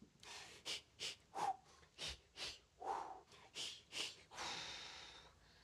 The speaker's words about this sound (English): Gives us a chance to work on our breathing exercises. It should go like this.